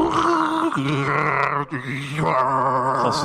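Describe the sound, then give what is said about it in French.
A beatboxer's voice imitates a dial-up modem connecting: a loud, continuous run of buzzy, shifting electronic tones with abrupt pitch jumps and brief breaks, performed alone. “Donc là j'ai besoin d'un petit bruit de modem”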